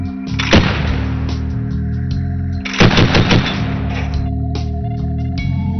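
A DShK heavy machine gun fires in two loud bursts, a short one early and a longer rattling volley a couple of seconds later, over a steady droning background.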